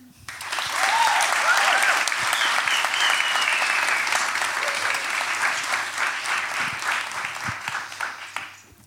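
A crowd bursts into sustained applause for the evening's guest, dense and steady clapping that holds loud for several seconds before gradually thinning out, with a few brief cheers or whoops near the start.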